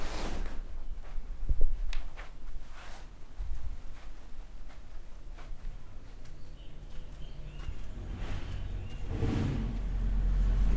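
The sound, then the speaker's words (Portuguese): A truck rumbles outside, its low engine noise swelling toward the end, with faint bird chirps and a few scattered knocks in the background. No one speaks. “Eita porra, vai virar caminhão logo cedo.”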